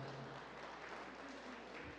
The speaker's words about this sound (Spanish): Póngase de pie en el nombre de Jesús. Dale palmas a Dios y dale palmas fuertemente al Señor, no se queda la mitad.